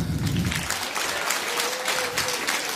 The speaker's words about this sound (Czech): Poprosím velký potlesk pro pastora